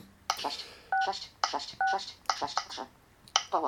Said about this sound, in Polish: Jak wygląda wybieranie numerów? że tak powiem, klasycznie.